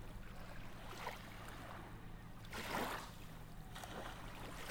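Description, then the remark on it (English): Steady water sounds with broad washes of noise swelling and receding, one stronger surge in the middle, over a low constant rumble like a boat motor or hull on the water. “The sound of the waves feel like whispers.”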